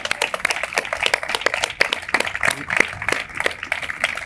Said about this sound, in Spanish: No, evidentemente, Santiago Armesilla y Fernando Díaz Villanueva también se merecen un aplauso.